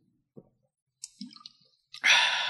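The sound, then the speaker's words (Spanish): Soft mouth noises of a person drinking water: small wet clicks and a gulp-like swallow, then a loud breathy exhale at the end. No one speaks. “Aquí sí voy a dar un, trago de agua un poco más, más grande.”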